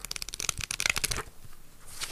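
Papery rustling and flicking of notepad pages being handled, a quick burst of crisp riffling that settles into softer, quieter shuffling.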